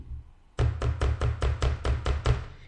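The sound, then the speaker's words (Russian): An iPhone rocks on a hard tabletop, clattering in a quick, steady series of about nine sharp knocks lasting two seconds, with no talking. “Теперь ваш iPhone можно положить на стол, и он не будет создавать вот эти звуки.”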